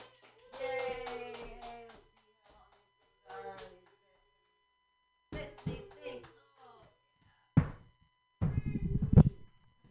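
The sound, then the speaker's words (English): Excited audience voices whoop and cheer, followed by a couple of short bursts of hand clapping that sound like a small group rather than a large crowd. “Um, but let's all clap it up for me and do like a couple jumps up front.”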